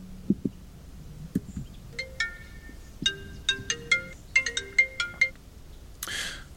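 A phone ringtone for an incoming call plays a quick melodic sequence of bright electronic tones, rising and falling in a repeating pattern, clear, ending with a short burst of noise.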